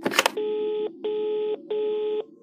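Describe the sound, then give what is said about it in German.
A short clatter, then three steady electronic telephone beeps after the caller hangs up, each about half a second long with brief gaps between them, clear with no voices. “Doch dann wird plötzlich aufgelegt.”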